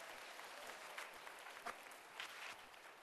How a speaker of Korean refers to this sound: 네, 신임 순장님들 박수로 격려해 주시기 바랍니다.